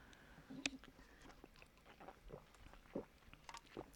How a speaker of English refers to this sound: Let me let me take a little sip of my alcohol in case I am. Uh, gotta thin that blood out. Gotta thin that blood out.